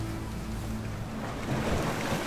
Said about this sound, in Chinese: 他浮上去，喷了一阵水花，随着海浪翻滚着肚皮，浪花拍打着他的身躯，让他感到很惬意。